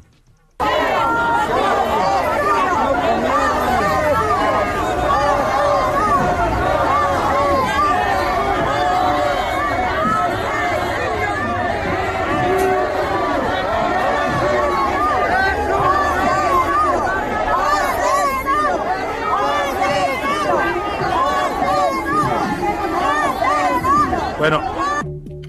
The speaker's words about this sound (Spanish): Así se escuchaba en las calles de la Gran Manzana, en Nueva York, en Manhattan, la guerra de porras con López Obrador al centro.